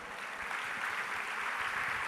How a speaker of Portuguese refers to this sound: Quem vai revelar o vencedor é também já premiado Nuno Luz. Uma salva de palmas para Nuno Luz.